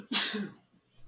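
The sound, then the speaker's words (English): A roommate's single sharp sneeze bursts out abruptly, a loud explosive rush of breath with a voiced edge, fading quickly into faint murmuring afterward. “bless you.”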